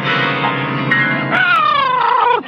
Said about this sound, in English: It's a cat, Miss Brooks. I brought him over to keep Minerva company.